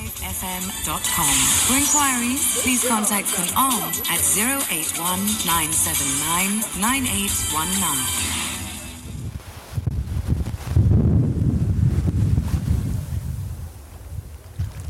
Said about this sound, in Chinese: 游艇起航了，你可以从风浪中就可以听到这游艇的速度是多么的快。为了还原这嘈杂的声效，我们征求 boss 的同意，带着设备坐在游艇的最前方